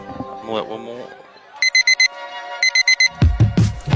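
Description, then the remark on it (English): An alarm clock beeps in the morning in quick bursts of four or five shrill, loud electronic tones. A person starts talking just as the beeping stops. “There it is. The sound signaling your morning has begun.”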